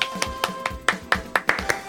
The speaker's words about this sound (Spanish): Pido ¿eh? aplauso. Aplaudí, Tibio aplauso.